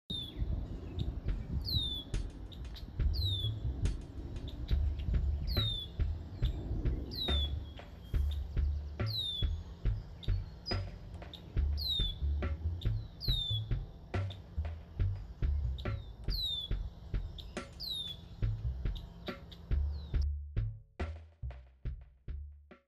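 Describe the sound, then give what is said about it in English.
Birds chirp outdoors in short, bright, evenly spaced calls that repeat over a low, steady rumble of background noise, with scattered clicks; no one speaks. “I sit back and I watch the birds. I literally watch the birds.”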